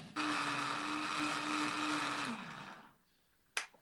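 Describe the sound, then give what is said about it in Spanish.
A blender whirs loudly for a couple of seconds, blending aloe vera pulp to make an aloe vera nectar, with a steady motor hum and grinding texture, then winds down and stops, followed by a short sharp click. “Ahora lo, que voy a hacer es pasar a licuar toda mi pulpa. Se va a escuchar un pequeño ruido, pero no se preocupen.”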